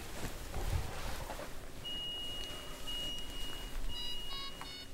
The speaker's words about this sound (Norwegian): Nå tar jeg bort en alarm, for at vi er litt vaksinerte mot alarmer. Både for vår del og for pasientene sin del.